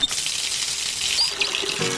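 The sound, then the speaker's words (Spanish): A tap runs steadily, a broad bright hiss of water splashing, with small gurgles and a brief drip-like ping near the end; no one speaks. “Valorar cada gota de agua.”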